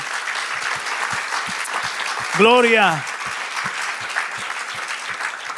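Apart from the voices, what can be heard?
audience applause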